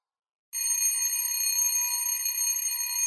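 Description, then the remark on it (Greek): After a brief moment of silence, the doorbell of a neighbouring apartment in an apartment building starts ringing with a loud, steady electric buzz that holds without a break until the end, with no voices. “Χτύπησα το κουδούνι της φοιτήτρια στο διπλανό διαμέρισμα και παρά τους φόβους μου η κοπέλα μου άνοιξε.”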